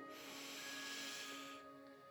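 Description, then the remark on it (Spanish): A single long, deep inhale, a close, airy rush of breath lasting about a second and a half, with soft sustained music tones underneath and no talking. “Toma una respiración profunda, inhalando”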